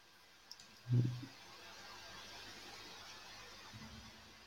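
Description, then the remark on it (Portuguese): A small click and then a soft, low thump, like a microphone being switched on, followed by a steady quiet hiss with no voices. “Olha, também precisas ligar o teu microfone”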